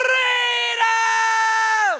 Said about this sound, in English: And one of the most famous scenes that, that gave permission for men around the world to get emotional is when they all shouted together against the dirty Englishman and they said, Freedom!